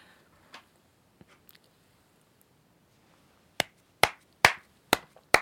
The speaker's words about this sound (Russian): Это я просто хлопаю, чтобы потом мы вырезали этот кусочек.